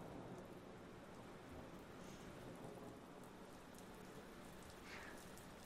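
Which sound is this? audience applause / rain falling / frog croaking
rain falling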